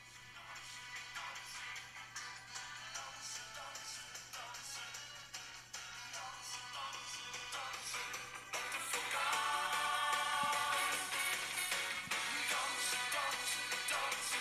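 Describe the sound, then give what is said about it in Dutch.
A song plays back through a small phone speaker, thin and tinny with almost no bass, turning fuller and louder about halfway through. No one talks over it. “Hè, ehm, ja, ik speel hem even van mijn mobiel af.”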